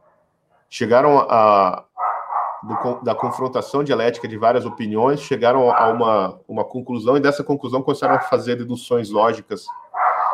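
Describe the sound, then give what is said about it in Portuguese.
A dog barks in the background, its yaps partly buried under a man's steady, continuous speech, which stays loud throughout. “Só fechar aqui minha, minha porta, tem um cachorro latindo aqui.”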